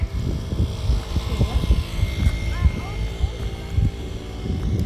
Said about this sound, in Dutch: kwam scooter voorbij.